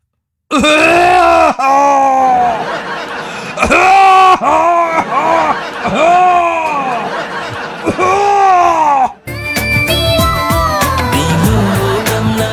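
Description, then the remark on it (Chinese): A voice imitates how some tall men cough heavily, in a run of loud, strained, groan-like hacks with rising and falling pitch. The coughing stops abruptly and gives way to a steady, tonal sound. “我跟你学一下，他们都这么咳。”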